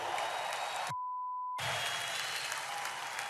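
Loud, dense crowd applause for the heavyweight champion of the world rolls steadily, cut off after about a second by a steady high-pitched bleep lasting over half a second, then the clapping and cheering resume at full strength.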